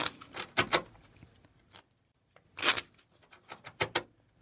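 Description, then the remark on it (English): Playing cards being shuffled during a card trick, after a chosen card is put back in the deck: a few quick, crisp riffling bursts separated by a pause, then a run of shorter, softer flicks. No talking is heard. “So now I'm going to go ahead and shuffle these up.”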